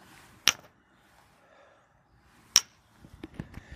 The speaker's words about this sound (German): Was ihr gerade gehört habt, waren Espresso-Tassen.